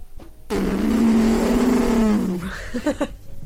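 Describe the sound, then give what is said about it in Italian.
A person vocally imitates the engine of a rally car, like those of the San Marino rally, with a loud, buzzing roar held for about two seconds, pitch wavering slightly, then trailing into a few short voiced sounds. “La prima cosa che mi è piaciuta è stato il rumore delle auto.”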